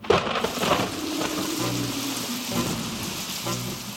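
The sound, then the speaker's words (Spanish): Steady, heavy rain hisses throughout, with a low rolling rumble of thunder swelling underneath; no voices, just the continuous wash of a storm. “Mientras tratan de conciliar el sueño, comienza una tormenta, y entre el miedo que les ha producido contarse historias de terror y los truenos que empiezan a sonar, ninguna de las dos puede dormirse.”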